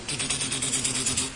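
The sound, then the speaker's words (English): A voice imitates a nuclear weapon with a sustained, hissing, rumbling blast that pulses rapidly for just over a second, moderately loud, with no words spoken. “I don't know if that's the sound of a nuclear weapon.”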